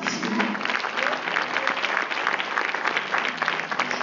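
An audience bursts into sustained applause, a dense, steady wash of many hands clapping with no pauses for the full four seconds, fairly loud throughout.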